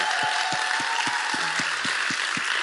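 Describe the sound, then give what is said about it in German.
A crowd at K21 applauds loudly and steadily for two people in thanks for their service there, a dense wash of many hands clapping at once, with a faint rhythmic low thump pulsing beneath it throughout. “einen richtig fetten Applaus geben für den Dienst, den sie hier bei K21 machen.”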